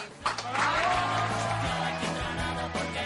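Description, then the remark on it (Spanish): A crowd claps loudly and steadily for about three seconds, greeting Tania Sánchez, a dense, continuous wash of applause with some music playing underneath. “Vaya aplauso, ¿eh? Enfervorecido y caluroso.”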